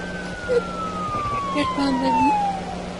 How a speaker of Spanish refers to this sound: Ya estoy acá. Veo a la ambulancia. Hay mucha gente.